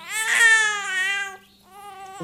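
A newborn baby girl, waking at midday, fusses and cries, a long wavering wail that breaks off, then resumes with a shorter, rising cry.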